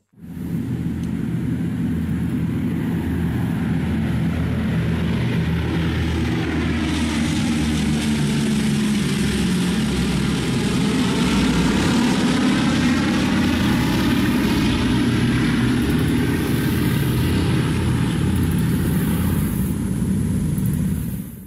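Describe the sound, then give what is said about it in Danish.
Heavy propeller engines, likely of the Boeing B-17F Flying Fortress bomber Memphis Belle, which appeared in the 1990 film of the same name, drone steadily and loudly throughout, a dense low rumble with a rough, throbbing texture and a slowly shifting pitch, no voices present. “Det vi hører her er lyden nok fra den kendteste udgave af Boeings B-17F flyvende fæstning bombefly.”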